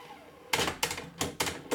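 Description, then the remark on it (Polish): A worn cassette deck mechanism clunks to a stop after fast-forwarding to the next song: five sharp, clattering mechanical knocks in quick, slightly uneven succession, fairly loud, with no voices. “Ok, teraz nacisnąłem przewijanie do przodu. Powinno się zatrzymać przed kolejną piosenką.”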